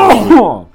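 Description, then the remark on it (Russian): A single loud sneeze: a sharp, hissy burst that breaks into a voiced, falling 'choo' and fades quickly, with no talking around it. “Хорош, будь здоров.”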